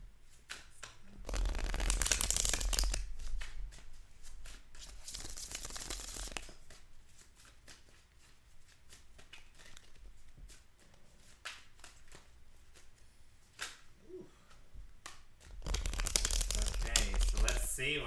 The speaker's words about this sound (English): So now we're just shuffling these cards.